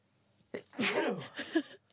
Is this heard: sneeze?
yes